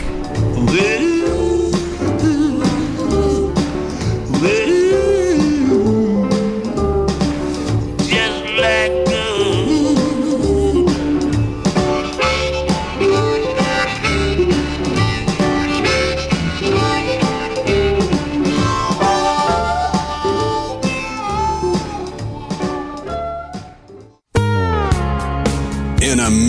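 A loud, full blues recording plays continuously during a radio show break, with a gritty, growling lead vocal over a steady rhythmic band; near the end the music briefly drops out before resuming.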